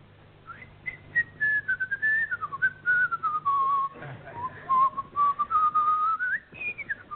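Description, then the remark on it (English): A man whistles the Hungarian Rhapsody tune alone, the melody gliding down and then climbing again in a steady run of phrases, clear for about seven seconds. “By whistling a highly skilled, mysterious secret tune.”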